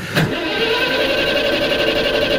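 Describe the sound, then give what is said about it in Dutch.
An old Citroën DS car with a 1911 cc engine fires up with a short burst, then settles into a steady, droning idle with a faint rhythmic pulse, with no voices. “Dat is duidelijk de 1911 cc-motor.”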